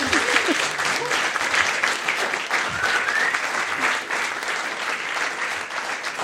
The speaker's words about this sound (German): Das ist euer Applaus. Vielen Dank.